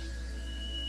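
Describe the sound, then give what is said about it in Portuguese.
A recording from the unmanned robotic Voyager space probe of solar wind plasma waves, from about 1.4 billion kilometres from Earth: a steady, eerie electronic drone with a deep rumble and thin sustained whistling tones, continuous and unchanging through the short stretch, with no voices. “Todo o barulho que vocês estão ouvindo de, de fundo aqui é da nave Voyager.”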